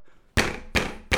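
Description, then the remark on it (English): Three loud, heavy bangs on squeaky floorboards by a person upstairs, evenly spaced about a third of a second apart, each a broad booming thud that rings out briefly before the next. “bang on the floor”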